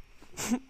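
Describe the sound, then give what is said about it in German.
A single short hiccup, a sudden breathy burst ending in a brief voiced squeak, quiet with no talking around it. “da ist der Hickster wieder.”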